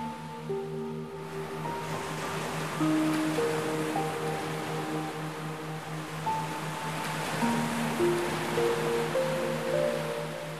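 Ocean waves surge and wash continuously in a broad, steady roar that swells and recedes, with soft sustained musical tones running underneath and no voices.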